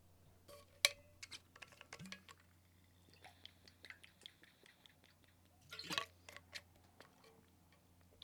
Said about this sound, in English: Quick hydration break. Get this guy some water, man. He's so dehydrated. He's been skating all day.